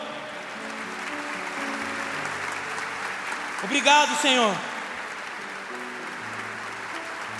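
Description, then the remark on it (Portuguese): An audience applauds the Lord in a steady, dense wash of clapping that continues throughout, while a man briefly speaks over it partway through. “Se você recebe essa palavra, querido, eu gostaria que você desse um, um grande aplauso ao Senhor.”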